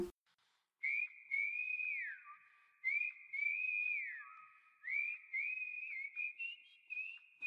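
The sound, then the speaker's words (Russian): Someone whistles a melody on its own, holding steady high notes broken by sliding rises and dips, in several repeating phrases with short breaks between them. “You can whistle.”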